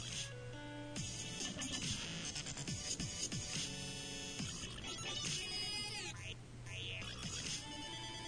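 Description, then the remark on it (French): A dubstep remix of the classic Nokia mobile phone ringtone, made by a 22-year-old DJ from Milan who won a contest: a chirpy synth melody over heavy wobbling bass and punchy electronic beats, played continuously and fairly quietly, with no voices. “et en fait c'est une version dubstep de cette sonnerie magnifique”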